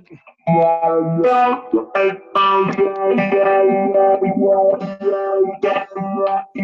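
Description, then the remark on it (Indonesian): An electric guitar plays a sustained, shimmering phrase through a wide, swirling tri-stereo chorus effect, its notes thick and slightly detuned, sounding full and moderately loud with no talking over it. “Ada Tristereo Chorus.”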